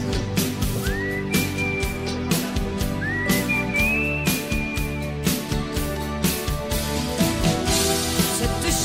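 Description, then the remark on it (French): A high, thin whistled harmony a third below the melody, with rising, sliding notes, rides over a loud, busy band track with steady drums and bass; no one speaks. “le gars, il porte hein? une, une tierce en ben dessous.”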